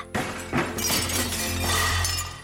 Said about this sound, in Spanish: Caen al suelo los platos amontonados de la cocina.